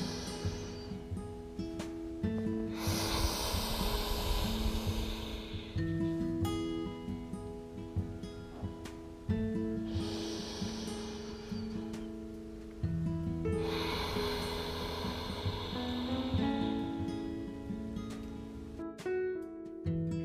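Three slow, deep breaths taken together in a guided breathing practice, each a long airy rush in and out, spaced several seconds apart over a soft, sustained instrumental drone with no talking.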